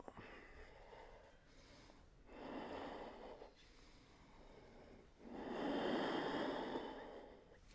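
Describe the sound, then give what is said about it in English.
Slow, deep breaths drawn in and pushed out, two long airy swells rising and falling, with no talking. “Get into a the fundamentals of relatedness right here, just by breathing in and breathing out.”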